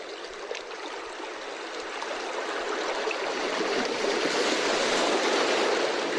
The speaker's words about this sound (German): Weil, wie gesagt, zum Einschlafen werde ich den nicht benutzen, aber ich könnte mir vorstellen, dass es unter euch welche gibt, die sagen, das kann ich mir gut vorstellen, bei Wellenrauschen einzuschlafen.